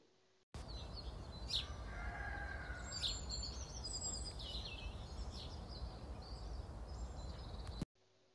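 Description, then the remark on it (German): A rooster crows once, faint against a steady outdoor hiss, while small birds chirp and tweet high above throughout. “Ja, das war ganz schön früh, denn der frühe Vogel hat sogar den armen Hahn gefangen.”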